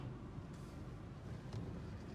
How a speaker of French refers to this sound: il y a un camion qui passe, je sais pas ce qu'il attend. C'est la pause. Euh. Ah oui, d'accord, il est en train de nettoyer le. Il est en train de nettoyer la route. Voilà, je passe par une zone de travaux et.